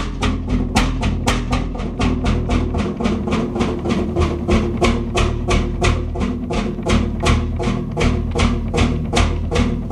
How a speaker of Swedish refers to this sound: Tror du tändkulemotorn funkar? Vi får se. Ja, vi provar den.